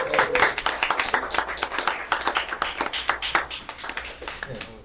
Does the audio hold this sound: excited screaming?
no